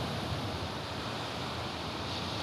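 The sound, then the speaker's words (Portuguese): Ocean surf washes onto a beach at half past eleven at night in a steady, continuous roar, moderately loud and without distinct individual breaks, with a faint windy hiss over it and no voices. “Onze e meia da noite, Augusto ainda está ali, sentado na areia da praia, olhando o mar”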